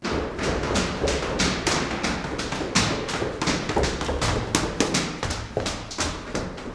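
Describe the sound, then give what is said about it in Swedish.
Rapid, steady footsteps thump up the stairs of a lighthouse toward its lantern, each step a sharp impact in a quick running rhythm, continuing without pause and with no voices. “Han springer ända upp till fyrens lykta.”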